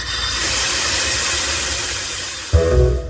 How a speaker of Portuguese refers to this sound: Meu irmão, doido, o caminhão parou.